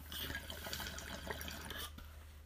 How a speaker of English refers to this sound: Bong hit. Bong. Oh yeah, it is definitely time for a bong bongaria.